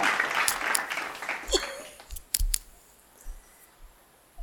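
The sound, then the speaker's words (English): A short burst of applause: dense, crackling clapping that thins out within two seconds, leaving a few scattered, sharper claps trailing off into quiet. “we can definitely give a round of applause to, to all, all, the, teachers.”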